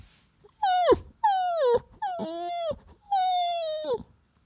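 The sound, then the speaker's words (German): A dog left alone by an empty bed whimpers pitifully in four drawn-out, high whines, each one sagging in pitch and breaking off at the end, clear with short pauses between them. “Ich beginne mitleidig zu fiepen.”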